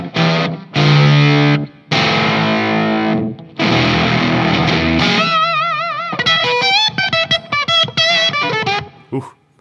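Thick, heavily distorted chords struck on the bass strings through a high-gain pedal: a few loud, sustained, compressed-sounding strums with short breaks, then quicker wavering notes and stabs, no talking.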